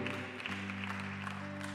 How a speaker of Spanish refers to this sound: Dame un aplauso Señor en esta tarde.